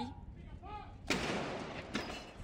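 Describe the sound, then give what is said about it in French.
A cannon salute booms out, part of 96 cannon shots fired from several places across the United Kingdom: a heavy, rolling blast with a long reverberant tail, followed by a second report under a faint background murmur of voices. “Et à l'instant où nous parlons, ce sont des coups de canon, 96 coups de canon qui sont tirés de part et d'autre euh, du Royaume-Uni, en hommage bien sûr à la souveraine décédée hier.”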